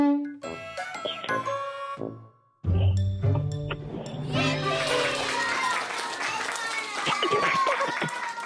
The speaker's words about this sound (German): Ein Esel war es und eine Geige. Du hast aber recht gehabt.